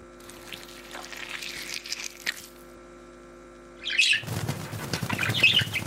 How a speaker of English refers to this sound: Oh, get those birds out of here!